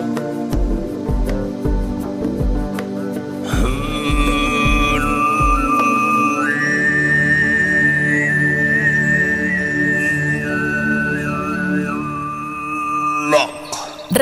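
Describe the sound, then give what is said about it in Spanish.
Tuvan throat singing, a technique characteristic of the Republic of Tuva, in a song from the region of Mongolia: a steady, buzzing low drone with a thin, whistling overtone melody gliding above it, backed by low rhythmic thumps early on. No one speaks. “utiliza la técnica del canto gutural muy característica de la República de Tuba”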